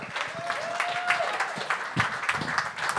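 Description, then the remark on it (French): A crowd at a stand-up comedy show applauds steadily as the next comedian takes the microphone, dense overlapping claps filling the whole stretch, with a brief whistle rising and falling early on and a few scattered shouts mixed in. “Applaudissez jusqu'à temps qu'il prenne le micro,”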